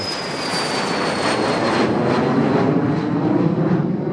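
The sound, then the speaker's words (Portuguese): The S2 Goitacá jet aircraft roars down the runway at Alcântara on takeoff, on 8 November 1955, a loud, steady engine rumble with a thin high-pitched whine riding over it, sustained throughout with no voices. “o Goitacá decolou da pista de Alcântara carregando uma ada mais comportada”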